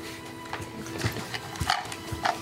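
Horses: a scattered series of soft, irregular bursts and thumps over a steady low hum, fairly quiet, with no one speaking.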